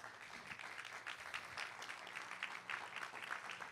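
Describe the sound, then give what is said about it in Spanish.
An audience applauds the Lord together, a dense, steady patter of many hands clapping that holds at an even level for a few seconds with no one speaking. “¿Cuántos le dan un aplauso al Señor por eso?”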